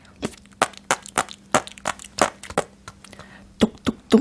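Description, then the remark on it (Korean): A vocal imitation of Squidward's footsteps from SpongeBob SquarePants: a series of sharp, dry clicks at an uneven walking pace, followed by a few quicker knocks like Patrick rapping on a door. No one talks. “똑똑똑 그 앞에는 약간 징징이 발자국 소리를 같이 이렇게 섞어서 한번 해보도록 하겠어요.”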